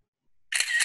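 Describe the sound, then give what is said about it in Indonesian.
A quick camera shutter click, the screenshot sound effect as a screenshot is taken during an online video meeting: a bright, crisp burst with two closely spaced clicks, about half a second long, following a moment of silence, with no talking. “saya akan screenshot.”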